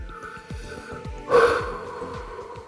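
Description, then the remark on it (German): A single hollow, resonant breath blown into a small vase, a short loud whoosh with a ringing tone, over a steady low rhythmic pattern of faint thumps in the background. “Ist vom Volumen ein bisschen kleiner, das ist eine etwas kleinere Vase gewesen, aber ist ein, ein bekanntes Geräusch, das uns auch hier wieder begegnen wird.”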